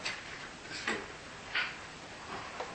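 Quiet, steady ticking of a clock: soft, crisp clicks in a slow, even rhythm over a faint background hiss, with no voices.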